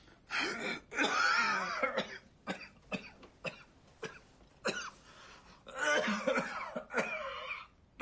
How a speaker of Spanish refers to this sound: A continuación, coge un cigarrillo que coloca en sus labios y lo enciende. Al dar la primera calada tose ahogado.